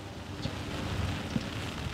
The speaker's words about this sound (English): It's one of those rare great days in Los Angeles. And as we talk, it starts to drizzle.